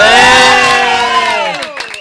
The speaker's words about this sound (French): Veuillez faire un, un, applaudissement pour l'actrice, l'humoriste, l'incroyable Marine Baoussan.